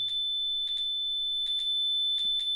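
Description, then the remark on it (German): A Color Star color detector set on a written letter gives a steady high-pitched whistling tone throughout, broken where there is text by bursts of crackly interference that come in uneven pairs, roughly four times. No one speaks. “ja, kommt so eine gewisse Störung in den Ton rein.”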